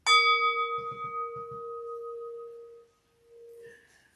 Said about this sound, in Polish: Ale najpierw będzie mały gążek, oczywiście z misy tybetańskiej.